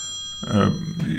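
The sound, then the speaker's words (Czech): A telephone rings with a steady, bright electronic tone throughout, an incoming call from work, while a voice starts talking over it partway through. “Něco zvoní.”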